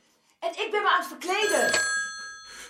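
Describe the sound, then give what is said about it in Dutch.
A telephone rings, a bright bell-like ring whose clear tones hang and slowly fade, heard over a moment of voice-like sound at the start. “De telefoon gaat.”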